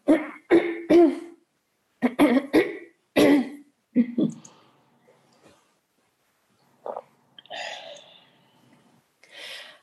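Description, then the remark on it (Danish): A person clears their throat loudly several times in quick, rough bursts, followed by quieter breathy rustling and a few faint sounds with no speech. “Øh, så jeg skal lige rømme mig.”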